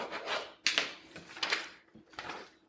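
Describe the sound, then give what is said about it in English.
Scratchy strokes of writing on a piece of paper: four or five quick, hissy scrapes in uneven bursts with short pauses between, fairly quiet and with no talking. “In fact, I'm going to write this piece of paper so you understand how important it is.”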